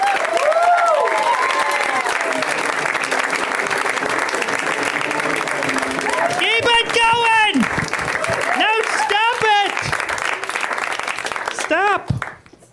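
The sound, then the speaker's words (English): A crowd applauds loudly and steadily for about twelve seconds, welcoming a stand-up comic to the stage, with whoops and shouted cheers rising over the clapping before it cuts off abruptly at the end. “So let's hear it right now”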